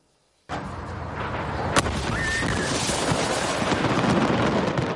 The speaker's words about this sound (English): People ran as the fireworks went off and the home burned. At least two people were killed. Windows shattered throughout the neighborhood and the plume of smoke could be seen for miles.